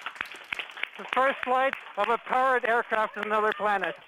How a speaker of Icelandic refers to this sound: Fagnaróp og lovatök glumdu á rannsóknarstofu NASA í Kaliforniu þegar verkfræðingurinn